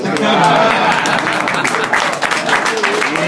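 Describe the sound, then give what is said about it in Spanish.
A burst of applause from a crowd, dense steady clapping at full loudness for a few seconds with some voices mixed in underneath. “Un aplauso al hermano.”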